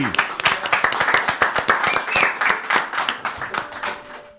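An audience claps steadily for a band of musical guests, a Cincinnati-based jam grass and American roots group, many hands producing a dense, crackling wash of applause that holds fairly loud throughout before tapering slightly at the end.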